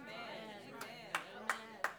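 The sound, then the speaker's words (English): A few sparse, sharp claps ring out one by one at an uneven pace over a steady murmur of talking voices during a sermon, a thin and scattered smattering rather than full applause. “You ain't going to get too many claps on that.”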